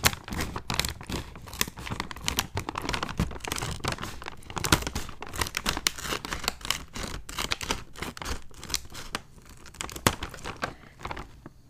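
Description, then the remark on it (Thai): A crinkly packet of tomato sweet twist snacks is torn open and handled, making a dense, continuous run of sharp plastic crackles, rustles and rips throughout, fairly loud, with no one speaking. “แต่ว่าที่หยิบมาแบบ play safe ก็คือ tomato sweet twist อันนี้ค่ะ อ่ะ มาแกะกันก่อน”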